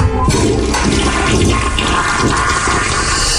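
A toilet flushes loudly, a continuous roaring rush of water that fills the whole few seconds without pause, with no voices over it.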